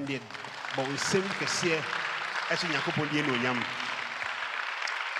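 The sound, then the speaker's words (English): An audience gives the Lord a big hand clap, a dense, sustained wash of applause, with raised voices calling out over it and the clapping continuing at an even level throughout. “If you believe that these days have been a good one, just give the Lord a big hand clap.”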